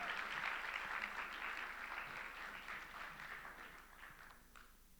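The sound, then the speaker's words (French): A church audience applauds steadily to welcome visitors, a dense wash of many hands clapping that holds strong before gradually thinning and fading toward the end, with no voices over it. “Euh, vraiment, le carrefour, vous pouvez juste faire une main d'applaudissement, juste les, les accueillir.”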